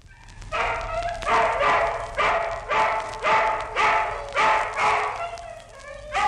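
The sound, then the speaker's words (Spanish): Hungry dogs bark in a steady run of about eight sharp, loud barks, each following quickly after the last, with no talking over them. “Y los perros hambrientos le comieron la carne, que estaba fresca todavía y blanda como carne nueva.”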